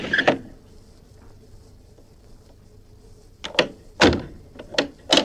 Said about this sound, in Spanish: De repente oyó el chirriar de una ventana que se abría encima de su cabeza y la voz de la corpulenta criada que lo llamaba.